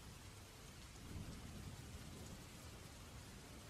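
Heavy rain pours steadily with strong wind in a forest in the late afternoon toward evening, a dense hiss filling the whole recording, while a low rumble of thunder swells underneath around the middle; the road is starting to flood. No voices, just the continuous downpour.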